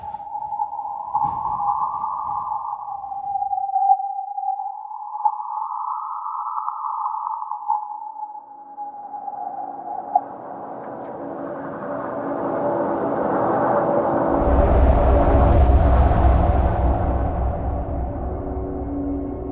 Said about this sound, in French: Quand ça va vite, les foils jouent leur musique.